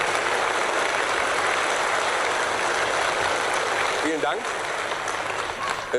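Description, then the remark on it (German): Steady, dense applause from a television studio audience in Wiesbaden fills the whole clip, loud and continuous, given before the host has done anything, with a man's voice briefly speaking over it near the end. “Das Publikum spendet viel Applaus, obwohl der Moderator noch gar nichts getan hat.”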